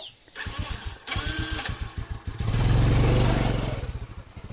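A motorcycle ridden by a 15-year-old girl on a dirt road putters in rapid low pulses, then revs up into a steady, louder drone before easing back, with no voices.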